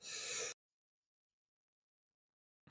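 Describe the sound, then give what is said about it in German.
A person gives one short, harsh cough, followed by a long stretch of silence before another cough-like burst starts right at the end. “hustet sich gerade die.”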